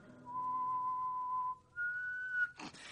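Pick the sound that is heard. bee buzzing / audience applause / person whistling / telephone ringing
person whistling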